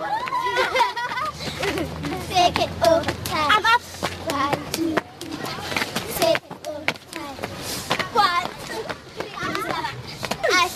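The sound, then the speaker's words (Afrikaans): Schoolchildren play and shout outside at school, some practising a song loudly, their high, excited voices overlapping in a constant lively babble with sharp bursts of calls and laughter, and a low rumble running underneath. “Staan nou net so 'n bietjie buite en is besig om hard te oefen na 'n liedjie. In die buite word daar gespeel.”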